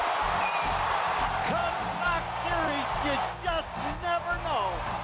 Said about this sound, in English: A game-winning home run for Chris Morel. Can you believe it? Listen to this crowd.